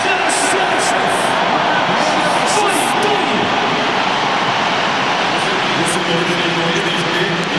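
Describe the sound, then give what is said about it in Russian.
A stadium crowd cheers loudly as fans greet Russia national team player Denis Cheryshev, in a sustained, roaring wash of noise that holds steady at full volume for several seconds without a break. “Вот я сделал специальную паузу, вы могли услышать, э, как встречают Дениса Черышева. Очень-очень громко.”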